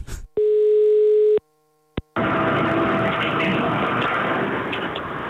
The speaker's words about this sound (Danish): og derfor så øh, skynder jeg mig at ringe op nu her